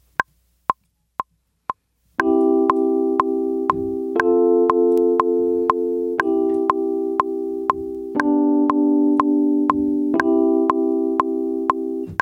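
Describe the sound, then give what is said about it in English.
Four metronome clicks count in, then four sustained electric piano chords, triggered over MIDI with the letter R key, ring out, changing every couple of seconds over the steady click track. The playing is loud and even. “The letter R to play the four chords.”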